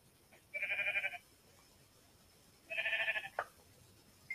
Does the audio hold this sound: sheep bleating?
yes